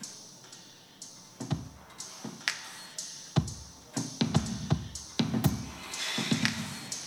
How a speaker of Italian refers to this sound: questo è un beat ottenuto quasi esclusivamente con i suoni del tram